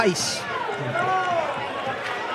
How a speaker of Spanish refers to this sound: Mira, escucha, escucha al público, ¿eh? el run run porque es que el Antequera ha salido con una facilidad tremenda.